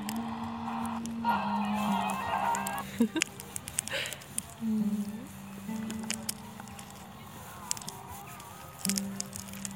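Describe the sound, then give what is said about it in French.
Birds calling outdoors in sunshine among pines, rocks and small shrubs, with repeated honking cries rising over a steady low drone, plus scattered short chirps and faint clicks throughout. No one speaks. “Euh, autour de nous, il y a des pins, une- des rochers, une- des petits arbustes et euh, des oiseaux.”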